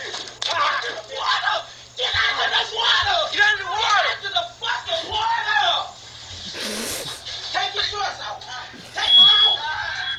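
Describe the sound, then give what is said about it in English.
A fire alarm blares with a steady, high electronic tone throughout, partly buried under loud, overlapping voices and shouting. “Take your shouts off as the fire alarm's going off.”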